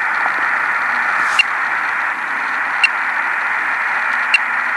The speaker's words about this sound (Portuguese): Som Raja, VHF, Very High Frequency, que é, ele emite um bip, né? Coloca o bip aí